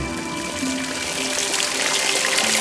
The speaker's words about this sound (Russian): Ну ничего себе! Прямо из скалы вдруг хлынула вода Так возник чудотворный источник